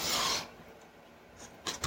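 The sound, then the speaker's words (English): A sharp, hissing nasal inhale taken while eating a bite of food, followed after a pause by a couple of shorter breathy rasps; no one speaks. “I inhaled while I took that bite.”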